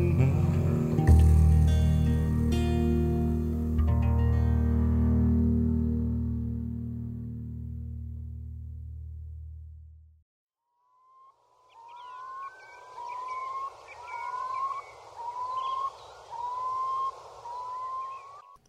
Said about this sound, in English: The sounds of a curlew there to finish that track off.